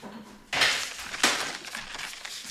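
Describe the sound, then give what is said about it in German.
Crinkly rustling and scraping as a glass wrapped in baking paper is rolled over dough, with two louder strokes followed by a steady papery rasp; no one speaks. “Dann mache ich jetzt auch Backpapier. Einfach auf das Glas.”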